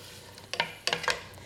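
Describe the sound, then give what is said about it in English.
A soft, steady sizzle of onion frying in a pan, broken by a few sharp scraping bursts as the pan is stirred, with no one speaking. “Okay, so the onion's in the pan.”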